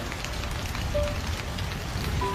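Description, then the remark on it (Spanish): Steady, dense rain pours down without a break, a continuous hiss with scattered patters and drips. No voices are heard, only the unbroken wash of heavy rainfall. “Esta lluvia como que no va a parar. También llueve así de fuerte sobre mi corazón.”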